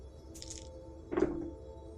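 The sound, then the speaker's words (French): Dice being rolled: a brief, bright rattle followed by a louder clatter as they land and settle, with no voices over the sound. “bah, une très bonne idée de jeter les dés, voilà.”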